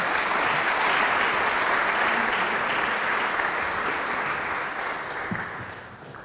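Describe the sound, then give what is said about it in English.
A crowd claps steadily in a dense, sustained wash of applause that holds strong for several seconds before gradually thinning out near the end, as Professor Kalle Moene and Professor Cathrine Holst are welcomed on stage. “A round of applause for them as well.”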